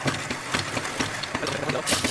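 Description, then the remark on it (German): Coffee beans being ground for an espresso for about 30 seconds: a continuous gritty, mechanical grinding with a steady rhythmic pulse of crunchy bursts, fairly loud and unbroken, with no talking. “So, ich habe jetzt 30 Sekunden gemahlen.”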